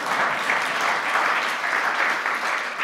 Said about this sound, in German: Kleiner Applaus.